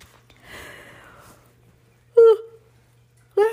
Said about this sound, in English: I'm always yawning when I read.